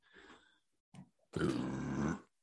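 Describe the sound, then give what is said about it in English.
A sneeze: a soft, breathy wind-up and a quick catch, then a loud, forceful, noisy burst that holds for nearly a second before cutting off. No talking. “Bless you. Thank you.”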